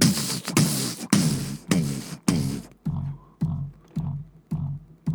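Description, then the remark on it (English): A voice imitates a steady, thumping bass beat, starting bright and full, then turning dull and muffled as if heard through a closed door, with about nine evenly spaced pulses. “You don't even have to open the door because you can hear the bass thumping from the outside.”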